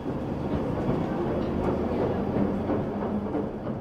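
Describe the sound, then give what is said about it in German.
A train rumbles steadily along the rails on a journey from Highbury and Islington station to Margate in Kent on a windy morning, a dense low roar with faint rhythmic clatter from the wheels, continuous throughout with no voices. “Vom Bahnhof Highbury and Islington eine Bahnreise von anderthalb Stunden.”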